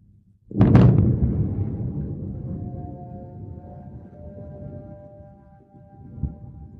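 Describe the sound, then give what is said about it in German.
A single loud explosion goes off, its deep boom rolling and rumbling away over several seconds while a faint sustained tone lingers in the background. “then periodic loud explosions and flashes”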